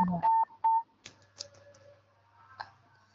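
Two short, steady electronic beeps from a mobile phone sound close together near the start, followed by faint clicks and a low hum, with no voices.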